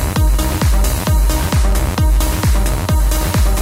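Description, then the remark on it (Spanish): A 2017 electronic dance music track released on the Black Hole Recordings label plays loud and full, a pounding four-on-the-floor kick drum driving a steady beat under bright sustained synth chords, with no voices. “lo editó bajo el sello Black Hole Recordings y se llama … y suena así de bien”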